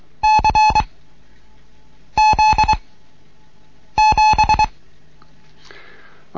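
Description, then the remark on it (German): Three separate bursts of Morse code beeps for the characters C, Z and 7, each a quick run of long and short steady electronic tones, spaced about two seconds apart. Loud and clear with no talking. “also noch einmal das C, dann das Z und die 7.”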